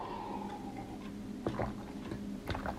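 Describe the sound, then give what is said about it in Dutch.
A sip of water is taken: quiet mouth and swallowing noises with two brief clicks about a second apart, no talking. “Ik pak even een slokje water tussendoor.”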